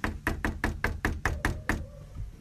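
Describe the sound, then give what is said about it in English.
A rapid, steady series of about nine firm knocks on the door of Curtis Flaherty's house, fairly loud, with a brief pause before the last rap, then quiet room tone. “I went to his house and knocked on his door.”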